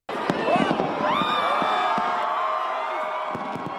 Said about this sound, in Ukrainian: Коли годинник пробив о опівніч Австралії. Понад мільйон людей спостерігали за 12-хвилинним феєрверком, зосередженим на мосту Арбор-Брідж у Сіднеї.